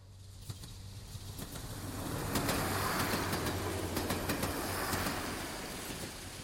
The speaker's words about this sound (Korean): 매 시간 그곳으로 비행기가 날고 배가 항해하고 기차가 덜컹거리며 다니지만